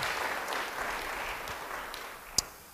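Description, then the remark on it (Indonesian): Believers clap steadily for God at a preacher's call, in a dense, continuous wash of many hands, with one sharp, louder clap standing out near the end; no one speaks. “Yang percaya beri tepuk tangan yang baik bagi dia.”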